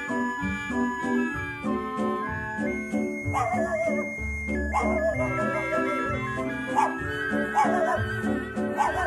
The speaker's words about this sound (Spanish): Ya serán las tres, furioso un perro ladra, con el permiso de Asté.